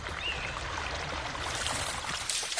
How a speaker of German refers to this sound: Der Beer Spray Lake war ein fließendes Gewässer und floss etwa eine Meile entfernt über einen Wasserfall wieder ab.